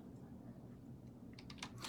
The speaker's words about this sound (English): sorry, I'm typing right now, but what I wanted to do was show you City of Tulsa made a proclamation today.